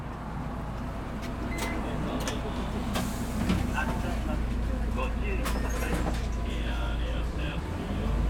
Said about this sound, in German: steigt in den Bus Nummer 59 in Richtung Ritsumekan-Universität. Er blickt aus dem Fenster. Der Bus passiert den großen Park des Kaiserpalastes und fährt am Kinkakuji, dem goldenen Pavillon,